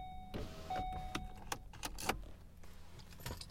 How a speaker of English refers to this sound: Um, excuse me one second. I'm going to open the window of my car right now because it's getting a little hot.